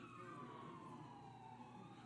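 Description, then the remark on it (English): An emergency siren wails steadily from the street, its tone sliding slightly lower as it passes, with a low traffic rumble underneath and no voices. “That siren going down the street?”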